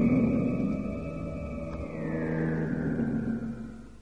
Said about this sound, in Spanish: Distingo, entre el ritmo lento y distante de las máquinas, una aguda sirena que marca el cambio de turno del personal.